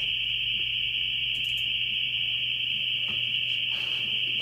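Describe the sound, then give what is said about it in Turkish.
A steady, high-pitched school alarm rings continuously without a break, loud and unwavering, with a low electrical hum beneath it and faint background clatter. “Alarm çalıyor şu an. Şu taraftan açtı. Okulda alarm çalıyor.”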